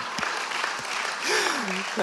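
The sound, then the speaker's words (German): An audience claps steadily and densely throughout for three people who recited the vision, swelling slightly toward the middle, where a single voice lets out a long gliding whoop that rises and then falls. “Applaus für die drei Leute, die es drauf haben.”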